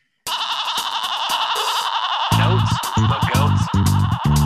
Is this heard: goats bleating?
yes